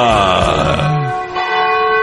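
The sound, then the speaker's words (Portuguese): The large bell of the Cathedral of Nossa Senhora de Aparecida rings out at a quarter to 10 pm, its strike followed by a rich, sustained metallic hum with many shimmering overtones, loud and resonant, with a second strike swelling in partway through. “Bate o sino da Catedral de Nossa Senhora de Aparecida.”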